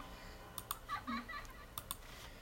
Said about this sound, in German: Ich berühre die ganze Zeit die Tastatur. Hilfe. Ich muss aber mal meine Hand wegnehmen.